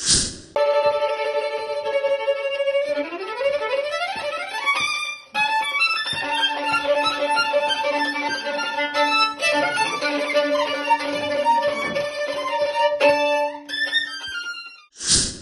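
A solo violin plays a flowing melody of sustained, bright notes with sliding pitch changes, close and fairly loud, pausing briefly once before continuing; no one speaks.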